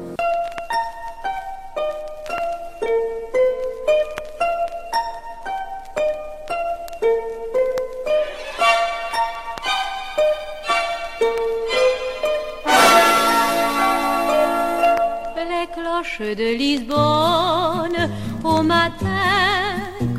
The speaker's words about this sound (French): Écoute ton chanson … par … en français